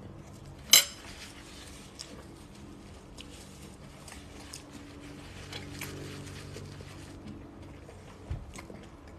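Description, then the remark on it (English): Cutlery clinks against a dish as someone eats a salad and stir fry: one sharp, bright clack at the start, then a scatter of soft scrapes and taps, with another distinct clink near the end. “I'm eating a delicious salad, a stir, stir fryer, and some amaret.”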